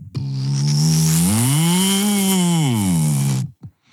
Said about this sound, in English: I mean, really, vibrators that sound like that old car alarm from high school.